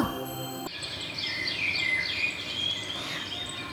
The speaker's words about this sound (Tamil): அப்பா குழந்தைகளா இந்த இடம் பாருடா பார்க்கறதுக்கு எவ்வளோ நல்லா இருக்குது பறவைகளோட சத்தமெல்லாம் காதுக்கு இனிமையாக இருக்குடா வாங்க ஒவ்வொரு பறவையாக போய் பார்க்கலாம்